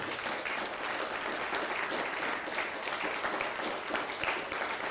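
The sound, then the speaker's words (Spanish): Steady, dense applause from an audience, a continuous crackle of many hands clapping at an even loudness for the full five seconds, with no voices. “Un fuerte aplauso.”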